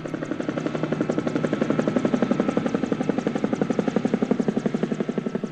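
A helicopter's rotor thumps in a fast, steady, loud chop, with a broad engine roar underneath that holds level for the whole stretch.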